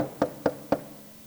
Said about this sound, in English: another knock at the door. You walk over to the door and you open it